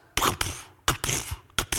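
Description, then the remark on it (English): A voice imitates a heart beating with three rhythmic double beats, each a loud, breathy, scraping burst rather than a deep thump, alone without any talking. “That's the sound of a heart beating, by the way, even though some of you are like, what is that?”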